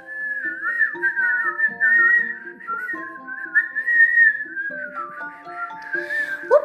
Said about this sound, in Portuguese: O pato dourado seguiu a caminhada quando observou num galho de árvore um passarinho que cantava alegremente.